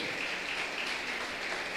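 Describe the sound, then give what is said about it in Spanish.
An audience applauds in a dense, steady wash of clapping that holds at an even loudness throughout, with no voices standing out above it. “Un aplauso bien fuerte.”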